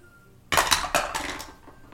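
Dice clatter and tumble across a hard tray in a quick burst of sharp, bright rattles that slow and fade over about a second and a half, with no voices.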